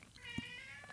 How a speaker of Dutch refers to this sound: Oh, ja. dat is de kat. Ja, horen we dat? Of, ja, eh? ik, hoor, ik, hoor een kat, ja.